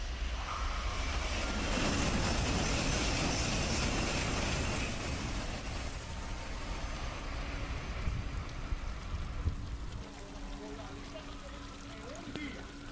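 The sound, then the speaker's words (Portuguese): A subway train rumbles past, a loud, steady roar with a rapid rhythmic clatter of wheels that holds for several seconds before easing off and fading toward the end; a train passes every three minutes. “Passando é de 3 em 3 minutos você disputa um, um trem passando, um trem mala passando.”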